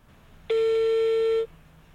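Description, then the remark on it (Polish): A single steady telephone ringback tone sounds for about a second as a call is placed to a guest, a clear mid-pitched electronic hum with bright overtones, starting and stopping abruptly over faint background noise. “No to dzwonimy.”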